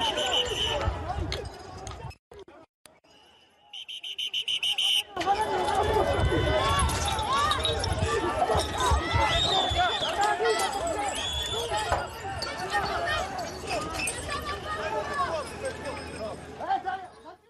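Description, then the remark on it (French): Glass bottles thrown during a police intervention shatter in sharp, bright crashes, several of them in quick succession, over a loud, continuous crowd hubbub of shouting voices and running footsteps. “Le bruit strident que vous entendez, je le dis aux téléspectateurs, ce sont des bouteilles en verre.”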